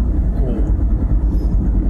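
Steady, loud low rumble of a car cruising along the Fukuoka Urban Expressway, with road and engine noise filling the cabin continuously and no talking.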